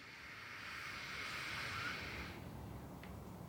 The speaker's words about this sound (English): So, to do this, we are going to pretend like we are smelling a flower, like a, a bee might do as they buzz around. And we're going to breathe in the smell of the flower like this.